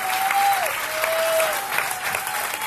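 Steady, dense applause from an audience, a continuous wash of clapping with no gaps, fairly loud, with a faint tonal whistle or feedback tone drifting beneath it.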